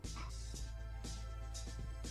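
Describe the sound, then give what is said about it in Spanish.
Dogs bark in a steady rhythm, about twice a second, sounding muffled over a constant low hum. No one speaks. “Putos perros, weones.”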